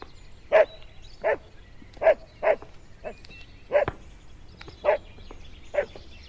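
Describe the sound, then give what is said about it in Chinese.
A beagle named Bike (比克) barks about nine times in steady succession, each bark short, sharp and mid-pitched, with brief pauses between them and no one talking over it. “比克，叫屁哦，连我都不认得哦。”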